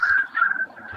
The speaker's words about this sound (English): You can hear the birds chirping. So you're obviously in a nice part of the world.